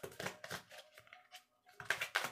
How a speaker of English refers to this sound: It's my only deck that I actually like shuffle like this.